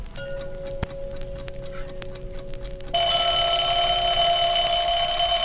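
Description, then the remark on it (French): An alarm clock ticks in a steady, quiet rhythm for about three seconds, then bursts into a loud, continuous high-pitched ringing that lasts to the end. No one speaks. “Et maintenant, le tic-tac d'un réveil et sa sonnerie.”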